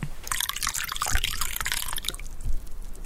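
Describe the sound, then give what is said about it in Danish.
Coffee being poured into a cup, a steady splashing trickle for about two seconds that thins into a few drips, with no one talking. “Jeg hælder lige en kop kaffe op.”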